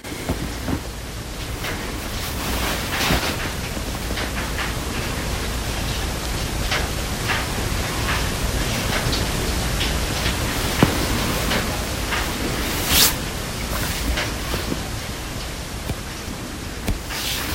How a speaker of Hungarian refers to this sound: És még mindig nagyon szakad az eső, felháborító, de az egész nap ilyen lesz. Norvég alapok, mindig esik az eső.